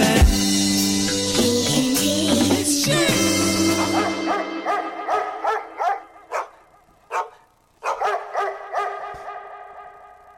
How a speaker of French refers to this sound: Ouf, ouf, voilà, on finit ça avec des aboiements de petits chiens.